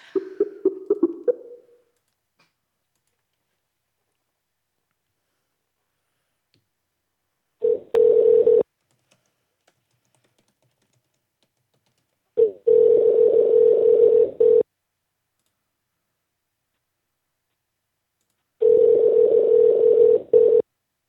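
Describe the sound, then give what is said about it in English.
A brief burst of phone dialing, then a telephone ringback tone sounds three times with long silent gaps between, steady and fairly loud, and nobody picks up. “I don't think this guy's gonna answer.”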